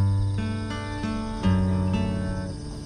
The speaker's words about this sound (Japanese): いつものあのちっちゃいギターも気に入ってるんですけどやっぱねいつも言ってるんですけど低音がね出なくてこれはもう弾いててめちゃくちゃ気持ちいいですね